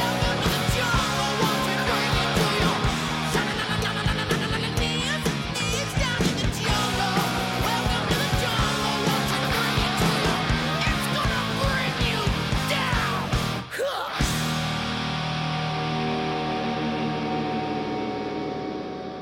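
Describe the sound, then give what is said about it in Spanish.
A loud, dense rock band plays with two distorted electric guitars on the right channel, then after a brief break the right-hand guitar sustains into a droning, ringing feedback tone that slowly fades at the end. “Se empiezan a acoplar, se empieza a escuchar un acople, de hecho.”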